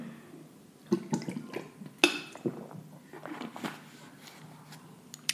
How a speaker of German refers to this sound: So, jetzt will ich nochmal schnell ein Glas Wasser trinken. Moment.